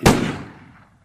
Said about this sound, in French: Les deux hommes roulèrent sur le sol, une bagarre s'ensuivait. Dans la confusion, un coup de feu résonna